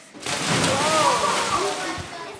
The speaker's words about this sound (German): Die einen haben Schwimmgürtel um, die anderen kommen schon ohne Hilfen aus. Wer sich traut, springt ins Wasser. Alle trauen sich. Okay, ich klatsche und dann geht's los. Los!